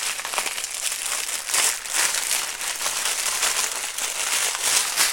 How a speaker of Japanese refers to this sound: おゴミ袋がなかったこのゴミの日恒例ゴミ袋を装着するという